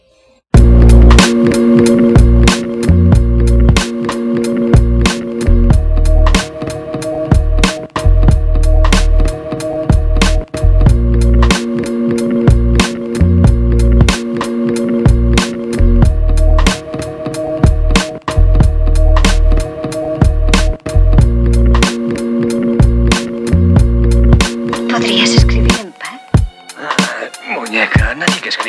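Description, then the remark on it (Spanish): A loud music track with a heavy, steady bass beat, crisp percussion and sustained synth chords looping throughout, shifting into a sparser, breakier section near the end. “Sí, nos vamos con música.”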